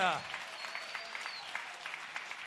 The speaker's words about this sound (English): Come on, let's give the Lord a clap, shall we? Holy Ghost! We love you, Lord! We love you, Lord!